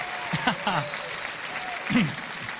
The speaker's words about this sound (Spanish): Aplaudan al Señor de señores.